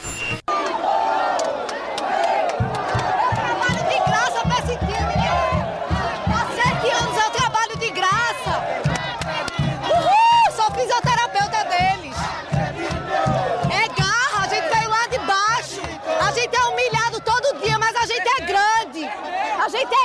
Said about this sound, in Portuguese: Vamos escutar um pouquinho como era que estava lá o Vianão, momentos antes ali do início da, das disputas de pênaltis.